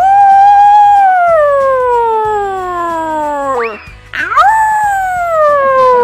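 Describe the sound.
A person imitates a wolf howling: a loud, long, drawn-out tone that slowly slides down in pitch, breaks off, then a second howl swoops up and tapers down again.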